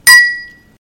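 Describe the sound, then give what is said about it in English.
A single bright clink of wine glasses touching in a toast, with a sharp attack and a clear ringing tone that fades out over about half a second, fairly loud. “stay weird, and drink wine. Cheers. Cheers.”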